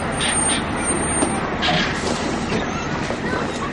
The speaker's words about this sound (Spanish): Un autobús escolar para ante él.